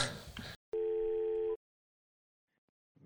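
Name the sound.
telephone call tone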